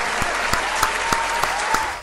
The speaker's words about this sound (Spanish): Un aplauso.